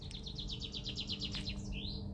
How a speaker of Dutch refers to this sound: Hoorde je hem, vogel? Heerlijk.